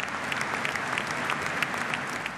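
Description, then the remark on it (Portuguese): Sustained applause from a large stadium crowd during a minute of applause honouring Pelé before the Paris Saint-Germain vs Lens match in France, with both teams' players gathered at the centre of the pitch; a dense steady wash of clapping with no break, fairly even in loudness throughout with no voices standing out. “Na França, antes do jogo entre o Paris Saint-Germain e Lens, os jogadores das duas equipes se reuniram no centro do gramado para um minuto de aplausos.”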